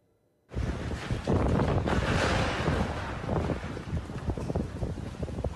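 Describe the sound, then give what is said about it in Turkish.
A strong lodos windstorm in Istanbul and western Turkey in February 2021 roars across a microphone, with loud buffeting gusts and crashing water or waves underneath, continuous for the whole stretch, no talking. “hafif yağmurla başladı, hemen ardından fırtına patladı. İstanbul'da ve yurdun batısında ortalığı birbirine kattı lodos fırtınası.”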